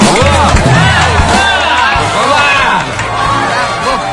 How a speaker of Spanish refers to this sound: Gracias, Quito. Dale un aplauso fuerte a ella,